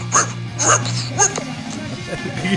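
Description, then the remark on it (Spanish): A dog named Tupac, half asleep and half awake, barks three times in quick, evenly spaced yips, fairly loud, followed by softer whiny dog vocalizations over a low steady hum. “A ver, vamos a ver si, si lo podemos hacer a hablar.”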